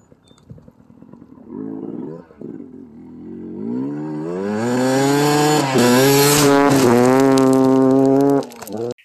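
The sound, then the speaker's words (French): A short intermission jingle: a motorbike-like engine revs up, its whine climbing steadily and holding loud for several seconds before cutting off, with no voices. “Écoutez, moi, on s'en rejoint tout de suite après le petit entracte et puis on passe ça en feu.”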